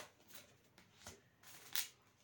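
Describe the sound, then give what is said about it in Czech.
Tarot cards being drawn from a deck: a few soft papery slides and flicks, with one sharper snap near the end, quiet and with no one speaking. “E, jako, dějte, já tady tahám ještě karty.”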